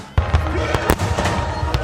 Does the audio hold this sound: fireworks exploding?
yes